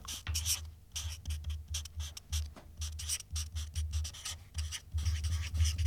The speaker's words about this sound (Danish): Jeg har det på bånd, men vil du ikke være sød at skrive det her på øh, den her øh, post-it?